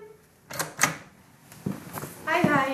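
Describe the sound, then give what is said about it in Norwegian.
Pages of a book of research results being leafed through at the premises of Arts Council Norway (Norsk kulturråd): a handful of quick papery swishes and rustles at irregular intervals, followed by a brief voice at the end. “og blar i boka med forskningsresultater”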